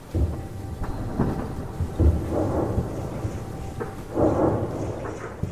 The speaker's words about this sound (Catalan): quan tot plegat ja no és només l'amenaça, sinó que les bombes realment estan caient al teu voltant.